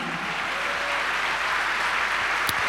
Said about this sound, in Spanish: Alabado el nombre de Jesús. A su nombre sea la gloria. Dale un aplauso a Dios por eso, amado hermano.